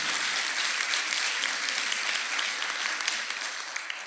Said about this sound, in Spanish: Si a aplaudir a Dios por eso, apláudele.